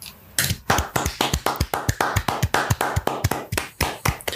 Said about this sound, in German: Ja, sollen wir, sollen wir da klatschen? Also nicht, dass wir live sind, sondern das anti Homophobietag ist. Da kann man schon mal eine Runde klatschen, ja. ja. Da klatschen wir mal für.